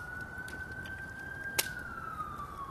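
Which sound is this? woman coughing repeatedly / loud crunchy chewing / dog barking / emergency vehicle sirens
emergency vehicle sirens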